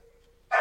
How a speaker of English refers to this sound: dog's getting anxious. You can hear her barking in the background.